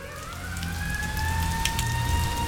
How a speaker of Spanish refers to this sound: Hace tres días que llueve sin parar.